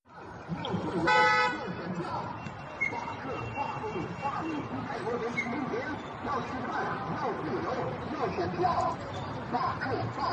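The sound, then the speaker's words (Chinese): Busy road traffic beneath Sitong Bridge in Beijing: a steady roar of passing vehicles, a loud car horn toot about a second in, and slogans shouted through a loudhailer from the bridge over the din throughout. “这是网上盛传十三号在北京四通桥高挂横幅、燃烟以及以扩音器大声喊出的口号，即便交通繁忙，桥下路下的口号声清晰可辨。”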